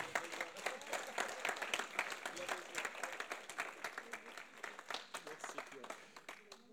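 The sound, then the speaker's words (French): An audience applauds steadily for several seconds to welcome a speaker being introduced, many hands clapping in a dense, rapid patter that tapers slightly toward the end, with faint voices mixed in. “Vous voulez bien qu'on l'encourage à la tâche”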